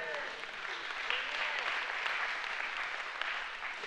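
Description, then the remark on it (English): A church audience gives the Lord a hand clap during a sermon, clapping steadily for several seconds in a dense, even wash of many hands with no pauses, with a faint murmur of voices mixed beneath the applause. “If you believe that today, give the Lord a hand clap, all right?”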